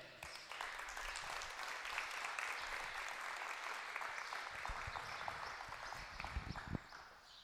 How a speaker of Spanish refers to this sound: Le damos un aplauso al Señor.